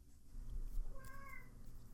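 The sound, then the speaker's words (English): A single cat meow, short and moderately loud, rises and falls in pitch over a low, steady background rumble, with no talking in between. “Thank you for your input, Cat.”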